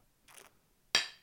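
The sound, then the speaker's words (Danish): Beer glasses holding a 2016 Imperial Breakfast Stout with coffee and vanilla clink together in a toast: one sharp, bright chime that rings out and fades, preceded by a softer brushing contact. It is clear, with no voices. “Man burde næsten skåle, når man har sådan nogle glas her.”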